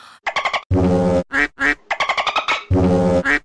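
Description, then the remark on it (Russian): Loud dolphin-like chirps and squeaks used as a censor bleep: quick chattering bursts, two longer buzzy squawks and a few rising squeals, with no speech. “будет дельфини хор, да?”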